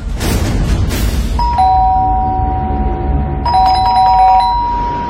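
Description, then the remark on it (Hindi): A doorbell rings twice, each press giving a clear two-tone ding-dong chime that lingers before fading, over a low steady background rumble with no one talking. “धवल ने पोरवा की गोद में अपनी बेटी नैना को दिया और दरवाजे की ओर बढ़ा”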